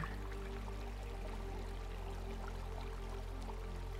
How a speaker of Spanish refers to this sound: Con la intención de conectar con la naturaleza. De sentir la frescura del arroyo que pasa